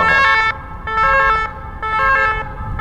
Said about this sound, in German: das ist ein Krankenwagen, das ist quasi normal. Die klingen nur ein bisschen marzahnisch.